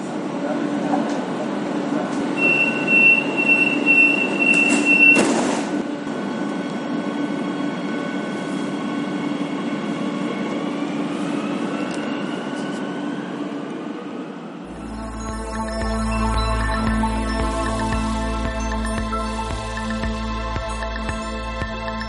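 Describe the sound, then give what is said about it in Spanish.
A Madrid Metro subway train rumbles along its rails with a steady mechanical roar and a high electric whine, then shifts to a deeper, throbbing drone with humming tones, continuous throughout. “Este año celebra su centenario y entre obras, pasillos y averías, poco a poco ha ido creciendo hasta convertirse en el tercero de los sistemas ferroviarios subterráneos metropolitanos del continente europeo y el sexto del mundo en importancia.”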